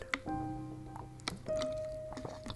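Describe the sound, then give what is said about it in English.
Someone takes a few sips and swallows of water, with wet mouth clicks and soft liquid squishes punctuating a quiet moment, no talking. “Need some water. Yeah, there's my water. Here we go.”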